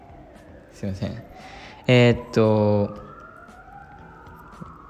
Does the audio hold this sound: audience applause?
no